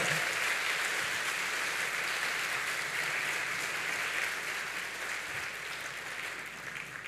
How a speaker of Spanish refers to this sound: ¿Cuántos dicen amén? ¿Cuántos dicen amén? El Señor merece un aplauso por esta palabra que nos ha entregado.